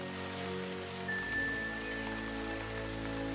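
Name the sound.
rain falling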